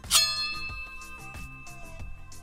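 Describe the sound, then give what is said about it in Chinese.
A foley sword-unsheathing effect like those in wuxia films, made by combining a concrete-polishing tool and a wall-paint scraper left unpressed so it springs: a bright metallic shing that rings on with a steady, wavering tone, accompanied by several soft, uneven low thumps. No one speaks. “哦，就是武侠片我们大家会听到的 嗯 一些拔刀出鞘的音效。”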